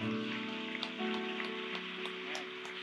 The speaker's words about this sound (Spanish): Recibe esto. Si usted lo recibe, dele un fuerte aplauso al Señor.